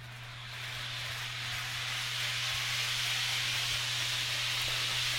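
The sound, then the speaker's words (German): A fast train on a digital model railway makes a test run, giving off a constant hissing whir over a low electric hum that swells slightly at the start, then holds even throughout. No one speaks. “Ich mache jetzt mal noch eine Probefahrt, mal sehen, ob man das hört. Die steht nämlich hinter mir. Ich lasse jetzt mal einen Zug fahren und ihr dürft raten, was das für ein Zug sein soll.”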